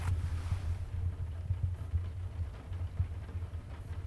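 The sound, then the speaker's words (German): Rain pattering steadily on a skylight window set into a sloping roof, a dense continuous drumming over a low, droning rumble, with occasional louder taps standing out; no voices. “Ja, das ist das, äh, unsere Dachschräge hier, äh, das Fenster, was da eingebaut ist. Da rappelt der Regen drauf.”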